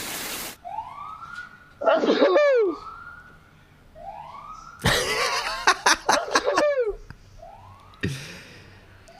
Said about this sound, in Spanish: Estornudos, efecto de sonido. 15 segundos dura.